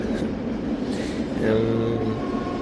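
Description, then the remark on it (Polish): A train rolls past with a continuous low rumble, and a steady whining tone swells up in the middle of its passing before fading back into the noise. “to teraz jeszcze pociąg jedzie.”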